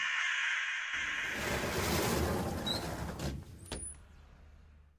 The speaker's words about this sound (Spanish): ¿Qué? es ese ruido? Tranquilícese, son solo unos cuervos peleándose por unas carroñas en la calle.